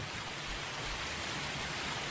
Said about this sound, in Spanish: Al rato, el repiqueteo constante en mi ventana anunciaba la lluvia que cada vez caía con más fiereza.